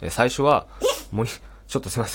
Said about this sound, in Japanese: もっちゃんがね、今くしゃみしちゃってるんですけど